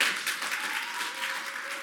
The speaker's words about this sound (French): Pour la seule femme de cet événement, est-ce qu'on peut encore applaudir s'il vous plaît